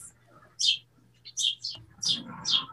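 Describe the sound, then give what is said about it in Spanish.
A small bird chirps in a handful of sharp, high-pitched bursts spaced irregularly over a few seconds, with a low steady hum and faint background noise underneath. “El pajarillo.”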